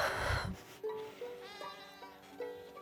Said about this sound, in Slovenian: In spet so to kot avce, slišimo. Um, Blejanje. Blejanje ja.